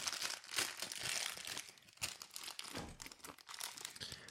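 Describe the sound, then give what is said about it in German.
A Haribo carnival plastic candy bag is being opened, with dense, continuous crinkling and crackling that comes in uneven bursts, plus a brief tearing rustle. No one speaks. “Ich mache jetzt hier gerade noch meine Haribo Kamelle Tüte auf.”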